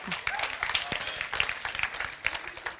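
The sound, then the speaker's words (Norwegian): A crowd applauds steadily for a few seconds, many hands clapping in a dense, even patter at moderate loudness. “Ja, du kan få lov til å klappe, det er greit.”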